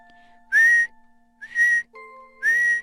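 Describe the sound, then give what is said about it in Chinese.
Three loud, shrill whistle blasts, each lasting about a third of a second and evenly spaced, with a quick upward swoop into a steady high tone, blown by a little mouse in a children's story to frighten chicks. No one speaks. “小老鼠吹哨子”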